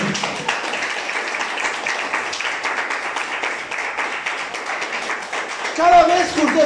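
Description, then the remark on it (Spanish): A large crowd applauds steadily, dense overlapping claps for several seconds, with voices rising over the clapping near the end, giving a loud round of applause to the Lord. “Denle un fuerte aplauso al Señor por eso.”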